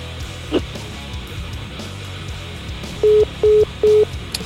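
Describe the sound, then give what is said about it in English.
Three loud, identical electronic tones from a studio phone system beep in quick succession near the end as a call ends. They are evenly spaced, over a low murmuring background with no clear talk. “Ollie's Bar and Grill soundstage phone system. You know it's cranking when you hear yeah. the three.”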